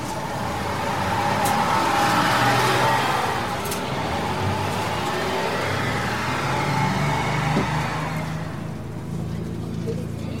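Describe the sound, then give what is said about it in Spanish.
A bus engine rumbles loudly and steadily, swelling as it accelerates, with a low drone and road noise throughout; muffled voices may be faintly present underneath. The bus is in Japan, travelling through the outskirts of Osaka toward Itami airport. “Subo el autobús y pa'lante.”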